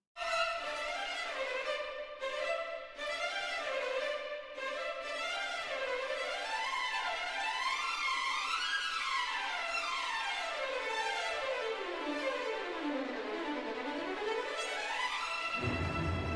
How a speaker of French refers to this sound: Pour exprimer la résilience de la vie et son énergie face à la guerre et à la mort, Nielsen ouvre sa symphonie par un grand outil dynamique, où l'on peut entendre le premier thème du mouvement, très vigoureux